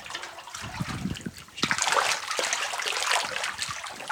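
Footsteps slosh and splash through shallow water in an underground mine working as people walk to a water-level sensor, an uneven run of wet sloshes over a steady watery trickle, with no talking.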